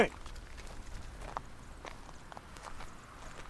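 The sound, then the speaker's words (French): Cows' hooves plod along a path in a loose, irregular rhythm, a series of soft thuds and scuffs over a low, steady outdoor background, as the cows (named Rosanne, Cavalier, Sergent and Caroline) are urged on by voice and walk along the path. “leur donne de la voix et ils avancent dans le chemin, sur la bonne voie.”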